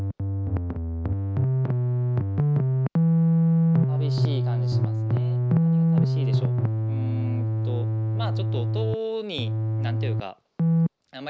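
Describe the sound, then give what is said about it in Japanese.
A sustained analog synthesizer tone with its filter cutoff turned down to remove the highs, sounding dull and muffled, stepping between a few low notes and holding steadily at moderate loudness before cutting off near the end. “でまああとはちょっとカットオフをいじって、まあ、高い音は削ってしまって。こんな感じですかね。”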